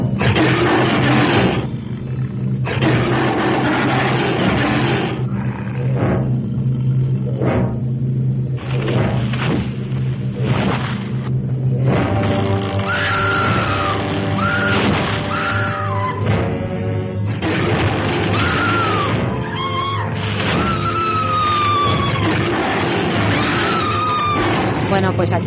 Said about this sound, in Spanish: está el monstruo y los gritos de la pobrecita rubia eh, interpretada por diferentes actrices a lo largo de la historia de cine, pero siempre en una situación poco recomendable desde cualquier punto de vista. Atada.